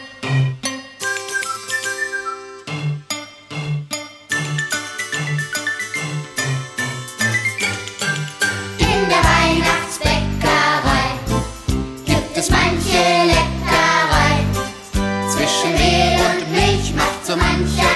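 A German Christmas song plays, opening with a bright, tinkling bell-like melody over a bouncing bass, then swelling into a fuller, louder band arrangement around the halfway point. No one speaks.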